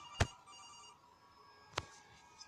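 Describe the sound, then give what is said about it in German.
A video game telephone rings in two short bursts about a second and a half apart, each a sharp metallic hit trailed by a brief bright ringing tone, with no voices. “Noch ein Anruf.”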